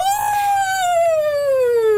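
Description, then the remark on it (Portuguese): A person imitates a wolf howl: one long, loud, drawn-out vocal note that starts high, wavers briefly, then slides steadily lower for about two seconds, with no other talking. “Claro, estás para aí o uivar, ou lá o que é isso.”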